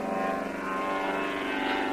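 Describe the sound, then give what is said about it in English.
A propeller plane that has just taken off from the water drones steadily, a continuous buzzing hum with a faint rising strain as it climbs toward the trees on the other side and clears them, with no voices over it. “Heading straight for the trees on the other side there.”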